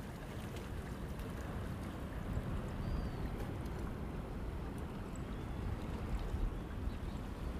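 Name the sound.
sea waves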